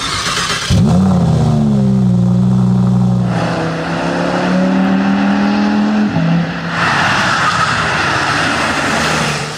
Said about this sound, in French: Après quelques tours euh, à bord de l'Audi R8, donc on retrouve finalement les sensations bien connues, notamment en termes de sonorité moteur et même d'accélération sur ces modèles très sportifs à essence.